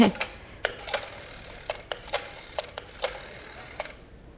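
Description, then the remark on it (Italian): A telephone number being dialed: a dozen or so crisp mechanical clicks in uneven bursts, fairly quiet, with no voices. “Scusi signora, mi permette di telefonare?”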